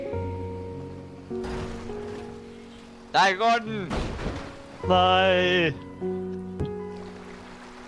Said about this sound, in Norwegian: Yes. Han flyter, ja. Neimen, ble den BM-en til en båt? Nei, den sank.